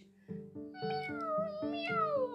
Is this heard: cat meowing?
yes